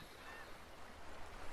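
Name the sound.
sea waves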